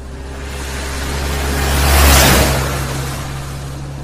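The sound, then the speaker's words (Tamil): A bus speeds past people waiting at a roadside bus stop, its deep engine rumble swelling to a loud peak midway and then fading as it speeds off, with no voices. “அதே பஸ் ஸ்டாப்ல இருக்காங்க ஒரு பத்து பதினஞ்சு நிமிஷமா அப்போ ரோட்ல இவங்கள தாண்டி ஒரு பஸ் வேகமா போச்சு”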